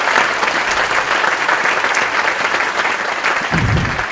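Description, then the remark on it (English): An audience applauds the scientists who have given short presentations, many hands clapping in a dense, even wash of sound that stays loud for the full four seconds without rising or fading. “So let's give a round of applause for them so far.”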